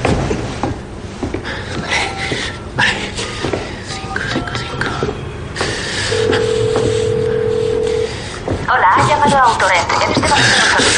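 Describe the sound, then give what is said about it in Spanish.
A car rental company's telephone number is punched in on a phone as a quick run of short keypad beeps, followed by a steady, sustained phone tone; a voice then comes on the line near the end. “Coge rápidamente el teléfono y lo marca.”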